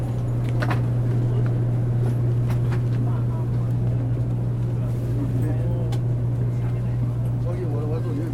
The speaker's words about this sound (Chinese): 好，说不定你已经猜到了，是高铁。对，进来喽，进来车厢里面，感觉一下。